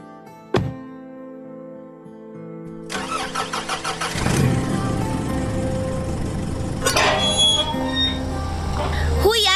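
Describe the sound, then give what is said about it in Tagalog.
A sharp thud, then a car starter cranks in quick rhythmic bursts before the engine catches and settles into a steady running rumble that continues to the end; the car is Eman's, parked in front of a house. “Kanina pa nakaparada yung kotse ni Eman sa tapat ng bahay natin pero ngayon ka lang bumaba.”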